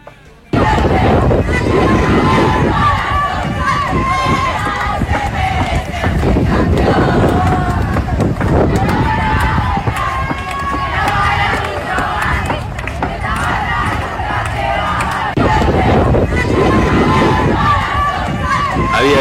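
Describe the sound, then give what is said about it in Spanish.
Girls in the stands cheer and shout loudly and continuously for about twenty seconds, celebrating their team reaching the playoffs, voices overlapping in excited, high-pitched yells with wind buffeting the microphone throughout. “las chicas desde la tribuna lo festejaban así.”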